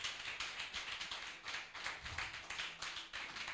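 An audience at a church service claps steadily and rhythmically in acclamation of God, many hands blending into a dense, even wash of applause with a regular pulse, and no clear voices rising above it.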